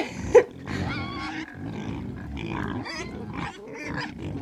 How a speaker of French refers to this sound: Mais c'est un cochon C'est un porcelet mais ils sont en train de les tuer